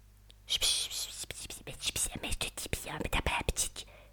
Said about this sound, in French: Tito entend des chuchotements autour de lui.